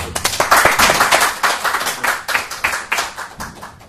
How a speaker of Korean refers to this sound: 자, 그러면 어, 초대손님 오늘 모시고 초대손님 1 아주 특별한 분을 모시도록 하겠습니다. 자, 박수 주십시오.